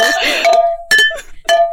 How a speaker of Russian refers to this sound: На самом деле подкаст, мне кажется, будет состоять из звуков бутылки. Ой, а, слушай, еще раз разные ноты.